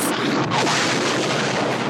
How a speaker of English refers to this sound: About halfway through the movie, there's the actual bomb blast, and it's this long, intense scene. It shows the bombing itself with a combination of like fire bombs and archival footage of real nuclear bomb blasts,